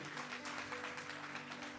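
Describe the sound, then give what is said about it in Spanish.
An audience applauds in a steady, dense wash of clapping that holds at an even, fairly soft level for about two seconds, with a faint low hum underneath and no voices. “Vamos, eso merece un mejor aplauso.”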